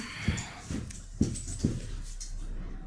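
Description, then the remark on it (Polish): A dog whimpers softly in a string of four short, whiny cries spaced about half a second apart, heard over a low steady background hum with no talking. “Proszę, proszę, narzuta, narzuta dla pieska.”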